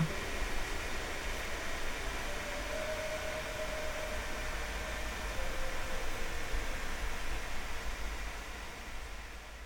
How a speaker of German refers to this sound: Mit einem Mal brach die Folge ab und der Bildschirm wurde schwarz, bevor das Signal komplett verschwand und auf dem Kanal nur noch ein Rauschen zu sehen war.